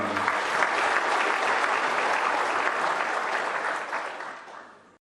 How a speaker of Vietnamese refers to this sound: cho nên tôi đề nghị với tình cảm ấy chúng ta đồng thanh nhất trí và có một tràng vỗ tay để đánh giá cao cái thành quả toàn